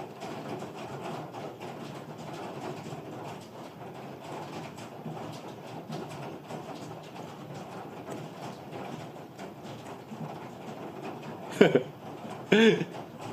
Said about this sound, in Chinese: 雨声很大，对不对？有没有什么问题啦？可以把雨声的白噪音关掉吗？没办法。